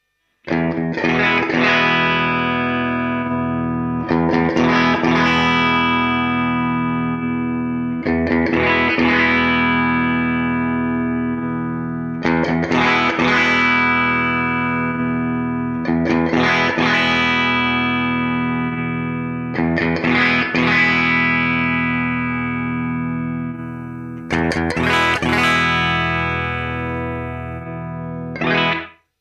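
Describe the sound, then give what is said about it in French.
A distorted electric guitar on its bridge pickup, played straight from the amp with no speaker or microphone simulation, harsh and fizzy, strumming loud sustained chords about every four seconds, each ringing out before the next, with no talking. “Et le dernier son, évidemment, était pas du tout beau, puisque c'est le son, euh, on va dire, brut sorti de l'ampli, mais sans aucune simulation de HP, de prise micro, euh, etc.”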